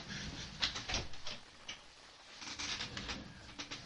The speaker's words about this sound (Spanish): Eh, oigo unas puertas. espera. Son las puertas del infierno de los podcasters.